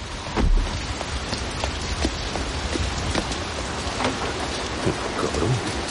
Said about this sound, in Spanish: El coche de Chris circula bajo la lluvia.